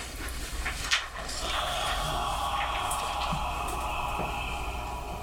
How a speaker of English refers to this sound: Doors opening.